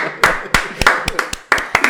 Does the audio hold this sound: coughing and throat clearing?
no